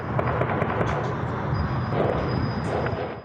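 Sharp cracks of gunfire scattered through a dense, rumbling wash of noise, with several quick shots popping out over a constant roar, as about 30 criminals with heavy weapons attack in Paraguay, recorded by security cameras. The exchange sounds chaotic.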